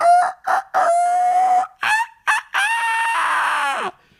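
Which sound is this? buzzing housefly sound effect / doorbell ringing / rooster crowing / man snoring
rooster crowing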